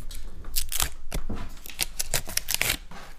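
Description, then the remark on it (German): A bottle of alcohol-free sparkling wine being opened: a quick run of crisp crinkles, ticks and scrapes, like foil and wire being worked off, fairly loud and uneven, with no pop and no talking. “Wenn du da ähm, für die Fans zu Hause die Flasche öffnest, werde ich mal Gläser holen.”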